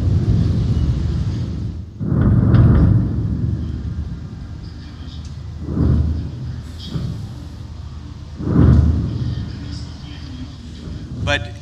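Wartime city ambience field-recorded in Beirut during the 2006 war by filmmaker and composer Nadim Mishlavi: a steady low rumble broken by several deep booming swells every few seconds, with muffled activity in the background and a faint crackle near the end.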